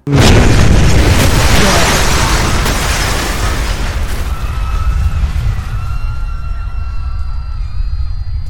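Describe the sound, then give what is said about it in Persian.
A massive building explosion special effect in a TV series bursts out at once, a deep booming blast that settles into a long low rumble, with thin high-pitched ringing tones emerging as the roar fades. “جلوه های ویژه انفجار ساختمون هم خیلی خوب بود و کاملا طبیعی بود”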